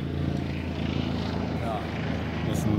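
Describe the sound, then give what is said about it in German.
A helicopter passes overhead, its loud, steady low rumble filling the scene with a continuous throbbing drone throughout. “Die warten mal vielleicht, bis der Flieger vorbei ist.”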